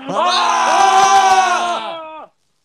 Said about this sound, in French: Il va falloir crier tout en cœur avec nous. 3, 2, 1.